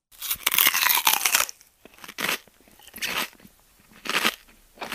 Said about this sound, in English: Before takeoff, you take some sweets out of your pocket. You gobble up a huge mouthful and chew using all of your facial muscles.